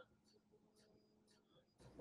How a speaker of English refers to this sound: What's that? Is that your, is that your dog? Yes, yes. Uh, the joys of working from home.